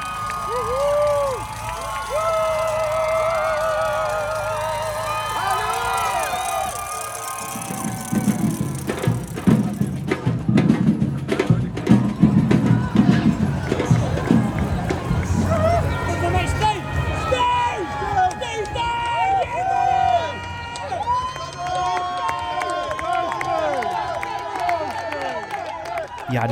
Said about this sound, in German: gebe ich euch jetzt erstmal Einblicke, ähm, wie nämlich die Stimmung der Zuschauerinnen und Zuschauer vor Ort war. Hier mal ein paar Einblicke dass ihr mal mitbekommt, wie die Leute abgegangen sind in, in Berlin.